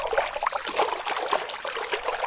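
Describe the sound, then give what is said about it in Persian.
Water from a pond rushes and splashes out in a steady, continuous gush, fairly loud, with bubbling trickles throughout and no voices, putting out the fire in an oven. “نخودی زود تون سریع دهنشو باز کرد و آب برکه اومد بیرون آتیش رو خاموش کرد”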